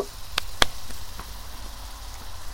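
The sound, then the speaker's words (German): Meat sizzles in a hot pan set on a grill, a steady hiss broken by a few sharp pops and crackles in the first second, with no talking. “Deswegen haben wir eine heiße Pfanne auf den Grill gestellt und wir machen das jetzt in der Pfanne.”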